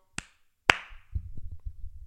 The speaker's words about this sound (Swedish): Klappa händerna om du är riktigt glad. Klappa händerna om du är riktigt glad.